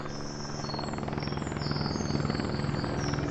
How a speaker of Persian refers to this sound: ای وای خدا به خیر کنه یعنی کی حالش انقدر بد شده که هلیکوپتر اورژانس اومده